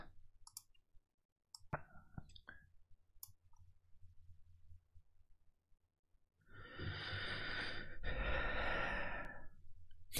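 Someone blows their nose up close, two long, loud, rushing honks back to back, following a few seconds of faint clicks and soft breathing.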